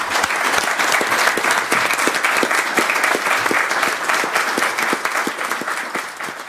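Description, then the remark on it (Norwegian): Tønsberg municipal council members at their 8 March meeting applauding steadily as they elect the next municipal director by acclamation, dense overlapping claps that hold a consistent loudness for several seconds before easing slightly at the end, with no talking. “Ja, Det var altså lyden av kommunestyret som klappet inn Tønsbergs neste kommunedirektør.”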